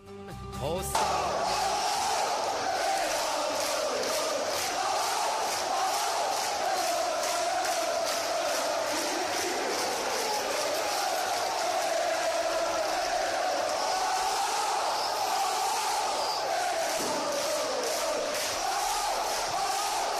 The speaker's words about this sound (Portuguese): Vamos ouvir a torcida do Rangers? Vamos.